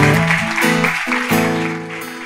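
An audience claps steadily in a dense, continuous wash of applause, mixed with sustained keyboard chords that shift every half second or so, with no voices.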